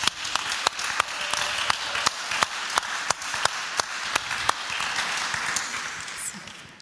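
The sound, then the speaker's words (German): An audience breaks into steady applause, many hands clapping in a dense, sustained wash with a few sharper individual claps popping out, holding at a fairly even level before tapering slightly at the end. “Und ich finde, wir dürfen Ihnen da gerade einfach mal einen Applaus geben für Ihre coole Art.”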